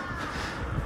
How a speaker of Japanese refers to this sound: カラスが鳴いておりますが、はい、外を歩きながら撮っております。